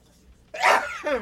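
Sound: sneeze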